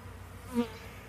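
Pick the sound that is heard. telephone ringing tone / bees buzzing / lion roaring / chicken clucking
bees buzzing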